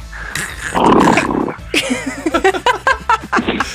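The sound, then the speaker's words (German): A voice imitates a battered car, starting with a rough, rattling growl and breaking into a string of quick sputtering bursts like a struggling engine, fairly loud. “Welche Geräusche macht dein Auto? Vielleicht kannst du die ungefähr mal nachmachen.”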